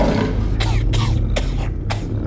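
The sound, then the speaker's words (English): A female creature coughs in a quick series of about five harsh, breathy bursts, fairly loud, over a steady low rumbling background. “And look, she's coughing.”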